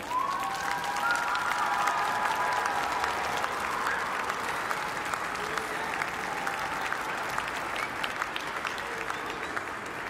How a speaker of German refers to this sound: Vielen, vielen Dank und einen Beifall.